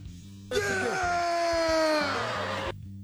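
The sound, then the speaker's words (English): A person lets out one long, loud scream lasting about two seconds, its pitch sliding slightly downward before cutting off abruptly, with a low murmur of background sound before and after. “I just wanted to play this scream, this scream here at the end.”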